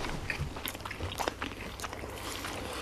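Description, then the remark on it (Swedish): Crunchy chewing of a bite of a Charmans vegetarian toast, with irregular crisp crackles and bites repeating over a few seconds, no talking. “Ha, ska vi ta varsin tugga då?”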